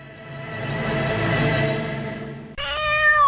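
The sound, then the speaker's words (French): A cat meows loudly and insistently, one long drawn-out yowl followed by a sharper, rising meow, with no talking. “Oh les chats.”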